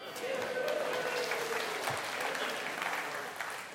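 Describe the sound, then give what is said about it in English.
A crowd claps steadily for a few seconds, dense and sustained applause filling the room at an even level without fading much. “Don't applaud an F.”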